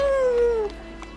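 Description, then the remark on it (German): A person imitates a wolf howl, a single sustained tone that holds steady and then slides downward before cutting off, loud, with no talking. “Ja, ich hab geheult gerade.”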